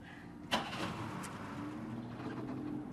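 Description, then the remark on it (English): A car engine catches with a sudden burst about half a second in, then settles into a steady, low rumbling idle as it is left running to warm up in the open air, continuing to the end. No one speaks. “I'm letting the engine run. I'm getting it warmed up.”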